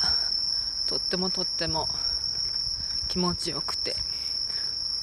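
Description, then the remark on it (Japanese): Bell crickets chirp in a steady, continuous high-pitched trill throughout, fairly loud, in a park in autumn, while a person walking past on the way to go shopping speaks briefly over them in short bursts. “毎年ねこの今あの公園公園のところを通っているんですが夏はカエルの声が素敵でこのちょっと秋のね季節にはスズムシがとってもとっても気持ちいいところです”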